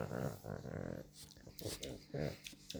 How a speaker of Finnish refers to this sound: no, sorry, toi tuhina on siis tässä koira on tässä ihan mikin vieressä.